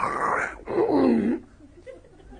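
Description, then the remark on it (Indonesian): A person imitates spitting with their voice, making a throaty hawking noise in two close bursts before it trails off into quiet. “Spitting sound.”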